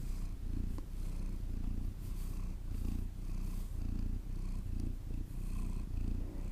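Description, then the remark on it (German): A female cat purrs steadily while lying next to the person recording, a low rumbling drone that swells in a slow, regular rhythm with each breath. No one speaks. “Sie schnurrt.”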